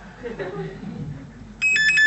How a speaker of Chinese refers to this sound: 哦，还有居然还有人打电话。